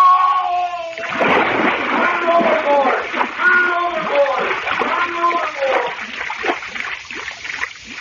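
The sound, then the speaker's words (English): A man falls overboard over the back rail with a sudden loud splash, followed by several seconds of churning, thrashing water while a voice cries out over the commotion. “Help! I fell in!”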